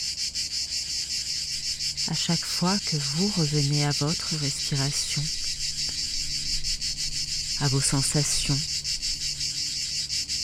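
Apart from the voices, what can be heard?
cicadas singing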